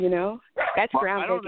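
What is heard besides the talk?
dog barking and whimpering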